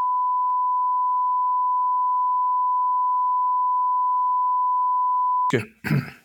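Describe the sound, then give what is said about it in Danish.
A long, steady high-pitched censor bleep holds at constant loudness for over five seconds, then cuts off as a voice briefly starts talking. “bip færdigt.”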